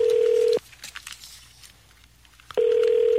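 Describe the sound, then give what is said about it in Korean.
Two loud, steady ringback tones from a phone line, each over half a second long, separated by about two seconds of quiet hiss, as a radio show's call to the Senior Health Association (노인 건강협회) goes unanswered. “자, 노인 건강협회 한번 전화 네, 네, 걸어서 네. 여쭤보겠습니다.”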